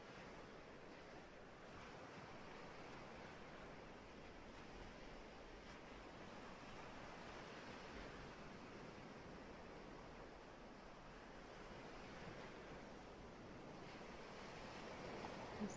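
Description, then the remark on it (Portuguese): Steady ocean surf rolls on continuously, a broad rushing wash of waves coming and going, with soft swells and a slight windy hiss, even in loudness, with no voices. “Meditação azul, com as ondas do mar”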